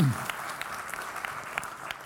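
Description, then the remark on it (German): A short burst of audience applause for a man who has just helped the speaker: steady, dense clapping with scattered sharper claps, at a moderate level for about two seconds, with a brief low vocal sound at the very start. “Kleiner Applaus für ihn.”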